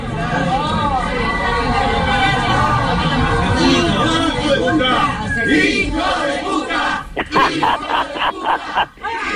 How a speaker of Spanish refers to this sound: vos tenés el audio del clásico de clásico de nuestras marchas desde eh, mínimo la democracia hasta acá